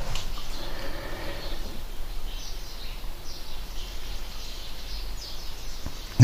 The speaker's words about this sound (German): ich sage mal, solange die Vögel morgens noch zwitschern, ja, ist die Welt eigentlich in Ordnung. Wenn man das morgens nicht mehr hören würde, ja, also gar nicht mehr, sage ich jetzt mal, das wäre echt traurig.